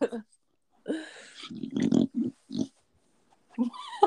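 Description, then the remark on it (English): A dog named Kipo, a female, snorts and grunts like a pig in a series of short, rough bursts, with brief pauses between the snuffling noises. “sorry, it sounds like you have a pig in your room.”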